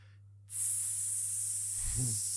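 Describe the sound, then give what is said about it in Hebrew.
A voice imitates water hissing from a pipe broken while tearing through a stubborn root, sending a huge jet of water up to the roof of a house: a sudden, loud, steady spraying hiss that starts abruptly and holds, with a brief low vocal murmur near the end. “ופתאום יש שקט. אני שומע מין...”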